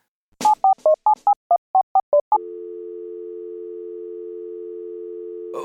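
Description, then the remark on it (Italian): About ten quick touch-tone beeps of a phone being dialed to call Capitan Mostarda, then a loud, steady, unbroken line tone drones on for several seconds with no answer and no voices, because the telephone cable has been cut. “Oh, santa massenza, c'è qualcosa che non funziona. Ah, ah, ah, ah, ho tagliato cavo di telefono.”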